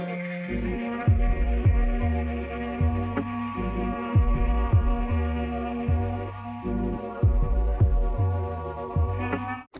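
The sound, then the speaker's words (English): A hypnotic, groovy electronic trance beat with deep, throbbing bass pulses repeating in a steady rhythm beneath sustained, droning synth tones, loud and continuous with no voices. “Yeah, so nice little groovy beat there, kind of trancy beat there.”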